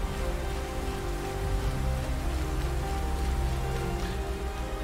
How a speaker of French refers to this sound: Ah, il pleut.